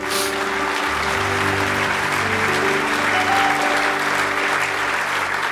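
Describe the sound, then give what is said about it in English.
A large audience at a morning church service claps steadily and loudly throughout, a dense wash of many hands, while sustained low keyboard chords hum underneath the applause. “If you love the Lord this morning, let me hear your hands.”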